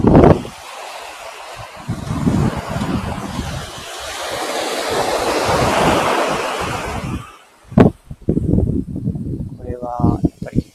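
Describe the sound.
Steady surf washes over a beach at Hayama, Japan, in the afternoon in a loud, continuous rush for several seconds, then fades as people begin talking.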